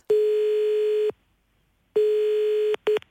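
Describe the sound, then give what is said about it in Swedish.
A telephone ringback tone of a call placed on Mix Megapol radio by a caller with three quick questions: a steady, buzzy mid-pitched beep about a second long, a pause, then a second long beep and a quick short burst. No one speaks. “Han ringer med tre snabba frågor.”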